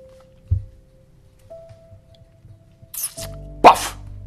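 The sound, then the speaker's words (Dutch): A dull thump, then a brief rushing burst and a loud, heavy splash as someone jumps short across a ditch and lands in the middle of the ditch water, over a faint steady hum with no voices. “Hij nam de sprong kort en kwam midden in de sloot terecht.”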